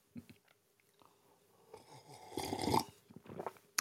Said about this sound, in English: There it is, kids. That's a sip of the day right there. That was a good one. That was right. That was right. Made coffee a little late this morning, um, but it, it cooled down quickly here.